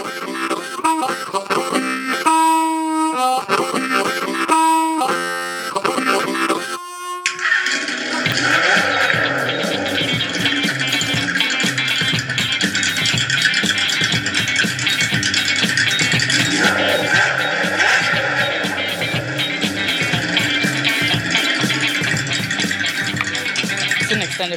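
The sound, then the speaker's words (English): A motorcycle engine revs in loud, choppy bursts, then settles into a sustained, rough roar with rising and falling pitch that continues to the end, with no one talking. “a little motorcycle brapping at the end.”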